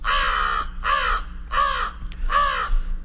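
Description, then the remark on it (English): An American crow in a city caws four times in a steady, evenly spaced series, loud, each call harsh and drawn-out, over a low background hum with no one talking. “Yep, American crows in the city.”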